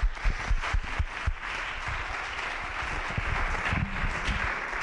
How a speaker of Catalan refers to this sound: un fort aplaudiment també per ells.